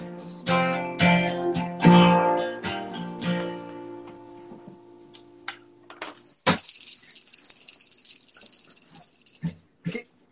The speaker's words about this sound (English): Hey, can you hear that right there? Yeah, I can hear. Yeah, good. It's a it's a bell.